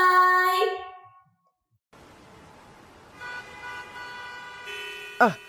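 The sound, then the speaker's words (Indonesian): Car horns honk in a traffic jam amid a dense traffic hum, a loud harmonic blast opening the scene, then steady horn tones and one sharp rising honk near the end over idling engines. “Macet banget sih.”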